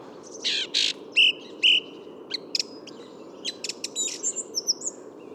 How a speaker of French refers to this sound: Retour sur une nouvelle grive musicienne, et cette fois-ci au milieu du bois.